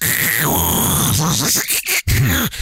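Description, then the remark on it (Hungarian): A person vocally mimics a fax machine's screeching transmission as it sends a picture: a sustained high whine that drops into warbling, buzzing tones and choppy bursts, loud, lasting a few seconds. “egyrészt nincs is vonalas számot, ha van, akkor annak a végére egy fax készüléket betenni, hát embertelen. És akkor hallod, hogy”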